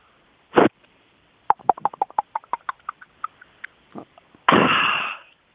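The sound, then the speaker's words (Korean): A caller's voice over the phone imitates a bottle cap being opened: a sharp pop, then a quick run of ratcheting clicks like a cap twisting, and a final hissing burst of escaping fizz, fairly loud. “네, 그 다음은 병뚜껑 따는 소리입니다.”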